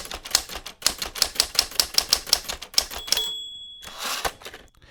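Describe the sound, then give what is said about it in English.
Rapid, steady typewriter keystrokes clatter, then a bell dings and a loud ratcheting carriage return sweeps across, followed by a couple more keystrokes. “And wait for the carriage return.”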